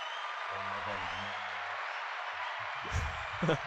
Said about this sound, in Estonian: mis tähendab, ma saan panna siit aplausi käima.